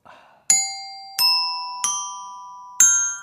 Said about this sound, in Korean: 요거는 그냥, 어, 보너스였습니다. 그냥, 어, 이 답변에 대한, 예, 딩동댕동이었기 때문에 요거는 이제 정답 오답 요런 건 아니고요.